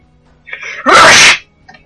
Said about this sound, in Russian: Будь здоров, ну что ж так выстрелил, я чуть не обосрался.